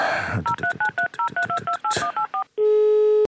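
telephone number being dialed

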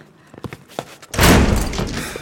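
door being

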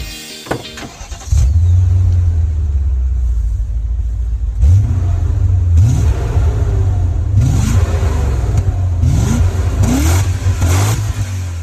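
car engine revving

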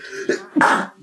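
sneeze

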